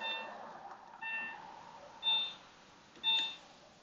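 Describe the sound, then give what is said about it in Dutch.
A car lock confirmation chirps as the car door is locked: four short electronic beeps roughly a second apart, thin and high-pitched with harmonic overtones, the last two louder, over faint background hiss with no talking. “Dan zit de deur dus lok.”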